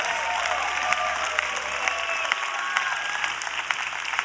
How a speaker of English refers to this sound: Come on, can we cheer on these amazing couples?